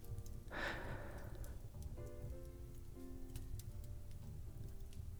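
A fireplace crackles softly, scattered pops and snaps over a low steady rumble, with a brief breathy whoosh early on and faint sustained tones drifting in beneath.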